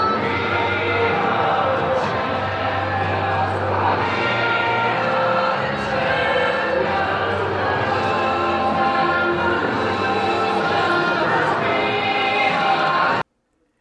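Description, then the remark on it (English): A large crowd at the Grey Cup football championship in Regina in late November roars and cheers in celebration as the Argos go on stage to claim the trophy, a dense, loud wall of many voices that holds steady for several seconds before cutting off abruptly. “It's the sound of a championship.”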